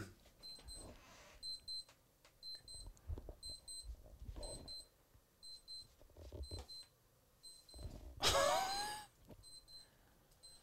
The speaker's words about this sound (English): What? Where is that coming from? now it's a, one of our stopwatches that has an alarm set. Does it ever go off, or do you have to push a button?